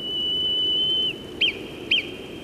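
A clear, high-pitched whistle taps out a Morse-like pattern: one long steady tone held for about a second, then two short, sharp blips spaced evenly apart, with no voices.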